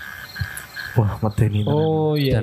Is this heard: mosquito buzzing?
yes